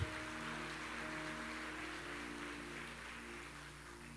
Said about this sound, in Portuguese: Dá uma forte salva de palmas a Deus.